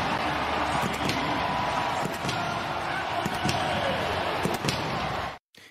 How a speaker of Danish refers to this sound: Det er også lyden fra NFL's officielle YouTube-kanal, hvor Tampa Bay Buccaneers quarterback-legenden Tom Brady kaster til endzone, når det er mod Philadelphia Eagles.